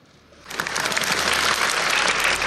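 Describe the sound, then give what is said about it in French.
A crowd breaks into applause for Élisabeth Borne during her farewell speech, after a brief quiet moment, the dense clapping swelling quickly and holding steady and loud to the end, with no voices heard. “Elisabeth Borne applaudit lors de son discours de revoir.”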